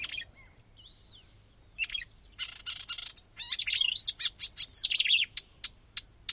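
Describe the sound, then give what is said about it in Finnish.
A marsh warbler sings a fast, varied song of sharp chirps, buzzy notes and whistled phrases, speeding into a dense, excited flurry of high notes with no one talking. “särä, särinöitä, niin se on taas sitten rauhallista luhta jutustelevaa, kun, kun tämä on tämmöinen hätähousu tai luhtokerttu.”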